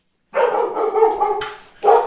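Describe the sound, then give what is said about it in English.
Dogs bark loudly in a sustained burst lasting over a second, then a brief pause before another bark starts, with no one talking over them. “Even the dogs didn't like that one.”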